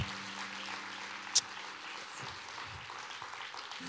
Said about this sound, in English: So here's what I encourage you guys to do as people are being baptized. Um, you know, feel free to clap. Feel free to fill this place with some excitement and joy because we want to let them know. Like, we really appreciate it.